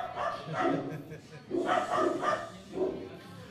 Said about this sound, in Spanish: A ver, hasta los perros se han alterado.